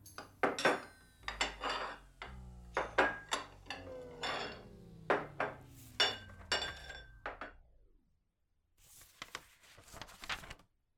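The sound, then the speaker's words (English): Dishes clink and clatter as they are stacked in the center of a table, a quick run of sharp ceramic knocks and rattles, then a brief pause before a few softer clinks close it out. “I'm on dish duty tonight. Please stack your dishes in the center of the table.”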